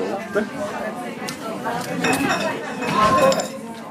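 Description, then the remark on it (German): Glasses clink and knock together repeatedly as a woman washes glasses at a bar, with bright ringing taps over a steady murmur of background chatter. “Sie hat, glaube ich, Gläser abwaschen.”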